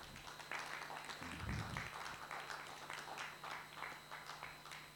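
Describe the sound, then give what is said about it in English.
An audience claps steadily for several seconds, in thanks for a group's work over the last 15 months: a dense, fairly loud patter of many hands with an uneven rhythm, a brief low thump early on and a faint steady hum underneath. “If you want to clap, you can clap for that.”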